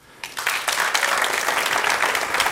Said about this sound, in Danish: Lad os lige lægge den øh, vejledende ud til en, til en applausafstemning her i gymnasiet. Hvor mange af jer øh, vil klappe af ordet klimaangst?